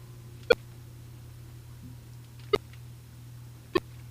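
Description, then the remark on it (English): Three short, crisp volume-change beeps from a Windows program sound at uneven intervals as the volume is lowered with the Windows+Control+Down Arrow hotkey, each a quick clicky blip over a faint, steady background hum, with no talking. “And you hear the tones Volume 20%.”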